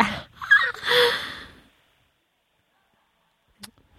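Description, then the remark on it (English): A sharp, loud intake of breath lasting over a second and tapering off into silence, followed by a faint brief click. “no, I said hard and with, then you breathed with in.”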